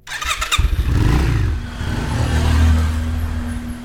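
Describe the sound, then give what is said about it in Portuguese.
A motorcycle engine fires up with a sputtering start, then revs and settles into a loud, throaty idle, with the pitch rising and dipping as the throttle is worked. “Eles basicamente pegaram as motos e saíram pela cidade em busca de alguma pista.”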